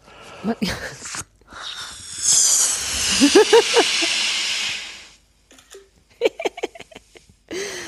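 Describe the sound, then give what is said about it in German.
Air hisses loudly and steadily out of a green balloon for about three seconds, with a few squeaky, whining bursts partway through. Short bits of voices come before and after the hiss. “So, das war ein grüner Luftballon.”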